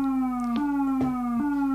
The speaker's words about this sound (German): und hier hört man eigentlich auch, wie die Wellenformen aussehen am besten, weil das ist jetzt ein, ein steigender Wellenform, der steigt an, fällt wieder ab, ein fallender Wellenform, äh, fallender Sägezahn